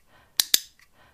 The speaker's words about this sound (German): Es gibt Klicker, da ist der Knopf ähm, nicht erhöht, sondern direkt in die Schale eingelassen sozusagen. Da habe ich einen, einen anderen Klicker, der hört sich so an.